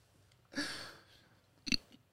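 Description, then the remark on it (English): Chewing of tough, rubbery food: one longer wet, squishy chew followed a moment later by a short, sharp bite, with no talking. “Why is you guys chewing so much? Just swallow, cuz.”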